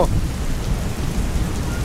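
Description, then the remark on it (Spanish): Heavy rain pours steadily with a deep, continuous rumble of thunder underneath, a storm heard live from outside a radio station, the dense sound filling the whole stretch without pause. “hay lluvia, truenos.”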